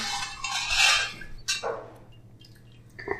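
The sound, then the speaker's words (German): A second of dry, hissing rustle as rice is scooped and poured into a bowl while preparing cat food, followed by a sharp clink and a few faint taps against the bowl. No one speaks. “Ich schöpfe jetzt, weil ich noch nicht weiß, wie viel Wasser ich noch benötige gleich mal so den Reis jetzt so ein bisschen da rein.”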